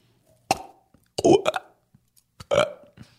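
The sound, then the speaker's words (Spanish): A voice imitates a starfish with three croaky, burp-like bursts, loud, separated by short pauses, the middle one longest and gurgling. “Esta es como yo creo que se escuchan las estrellas de mar.”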